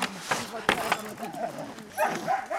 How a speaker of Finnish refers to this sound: Huutaako noit koirat ruokaa nyt?